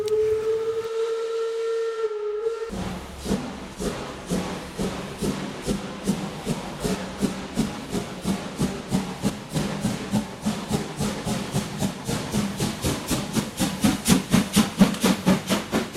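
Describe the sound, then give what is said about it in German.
A narrow-gauge steam locomotive on the line from Zittau to the spa town of Eubin in Upper Lusatia sounds a sustained whistle for about two seconds, then chuffs away in a steady, quickening rhythm of exhaust beats that grow louder, with no voices. “Das ist eine Dampflok und es ist so ganz urig.”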